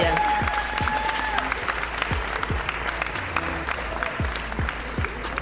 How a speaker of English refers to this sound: que je vous demande d'applaudir avec la ferveur d'un accueil du roi soleil.